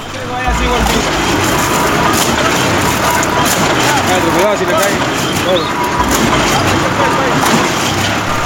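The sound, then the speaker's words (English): A rig drilling a water well on a school campus in Don Bosco runs loud, with a steady grinding, crushing roar that holds without pause throughout. Indistinct voices seem to mix into the din. “Here's the sound of the well being drilled in Don Bosco.”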